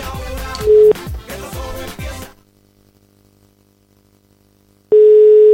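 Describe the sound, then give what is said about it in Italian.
A telephone ringing tone on a call: a short, steady mid-pitched beep over busy clattering sound, then a quiet lull before a loud, sustained ring tone sounds again. “Richiama, richiama!”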